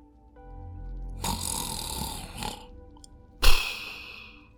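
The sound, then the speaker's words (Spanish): A voice imitates a man in the front row of an audience who fell asleep during a talk and snored loudly: a long, rasping inhaled snore followed by a short pause and a sharper, explosive snort-like burst, with no words spoken. “Y un señor que había en primera fila empezó a cabecear de sueño, eso le caía la cabeza, hasta el punto en que se durmió y el señor se puso a roncar.”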